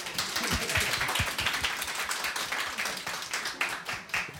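A burst of applause requested by a host on Radio 101,1, many hands clapping in a dense, steady patter that holds at an even, moderately loud level for several seconds without anyone speaking over it.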